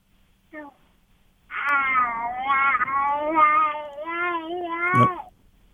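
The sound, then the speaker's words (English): A young child makes a short whimper, then a long, wavering, whiny vocalization lasting about three seconds, rising and falling in pitch, with no talking around it. “we're hearing your child, but we're not hearing you anymore.”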